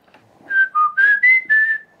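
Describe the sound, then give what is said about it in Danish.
A person whistles a short, clear melodic phrase of five connected notes, imitating a blackbird's song and stepping up and down in pitch, fairly loud with no talking. “Jeg havde en solsort, som var ved at drive mig til vanvid for ja. to år siden, som, som installerede sig i mit nabolag, og som fløjtede”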